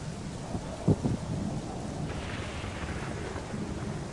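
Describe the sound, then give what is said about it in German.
A windy thunderstorm: a steady wash of rain with a low rumble of thunder, including a sharper crack about a second in, all under continuous noisy storm ambience and no voices. “Es ist windig, es ist kalt, es regnet, es donnert.”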